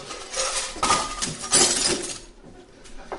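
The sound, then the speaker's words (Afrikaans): Teacups and saucers crash off a tray that stood too near the table's edge when someone bumped into the table, a burst of breaking china and glassy clinks with bright, jangling high tones, several sharp impacts over a few seconds before the rattling fades. “en ek spring weg want my my voete was kaal en my slippers en ek spring teen die tafel aan en die skinkbord met die koppies en die pierings het so bietjie te veel op die rand gestaan”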